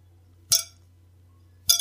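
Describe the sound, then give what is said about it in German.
Two sharp metallic clacks as outer steel balls on steel rods of different lengths are pulled back and let snap against a central steel ball, about a second apart, each with a bright, briefly ringing tone over a steady low hum. “Und wenn du die Kugeln, die äußeren Kugeln zurückziehst und gegen die mittlere schnacken lässt, dann macht's halt Geräusche.”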